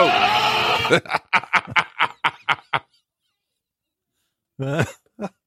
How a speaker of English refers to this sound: Officer ran, ran toward the wailing that one cop said sounds like a person, only to find it was a goat.